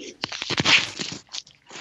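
A cat rubbing against a laptop, heard as crunchy rustling and scraping bursts right at the microphone, uneven and fairly loud, with a short pause before a final brush.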